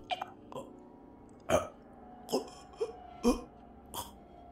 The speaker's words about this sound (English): After coming to this realization, I heard a repulsive gurgling sound. It was the sound that only a disembodied head could make when it's gasping for breath into a pair of lungs that weren't there.